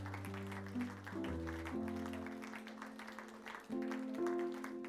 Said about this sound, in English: Come on, give God praise. Keep clapping till they join in. Keep, keep clapping till they see themselves whole. Keep clapping till somebody's coming out of the grave.